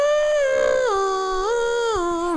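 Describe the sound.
A single voice hums or croons a wavering, sliding melody that swoops down and back up, mimicking the eerie gliding tone of a theremin, sustained and fairly loud with no speech.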